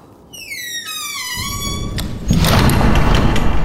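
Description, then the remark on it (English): A heavy house door, shut by Scrooge, swings on a long, creaking hinge whose squeal falls in pitch, then shuts with a loud thud followed by a booming, reverberant rumble; no voices. “Scrooge shut the door. The sound resounded through the house like thunder.”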